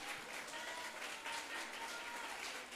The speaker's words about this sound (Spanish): Démosle un aplauso bien fuerte al Señor, hermano. Aleluya.